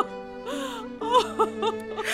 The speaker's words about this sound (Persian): بیایید کودکانم بیایید در آغوش من گریه نکنید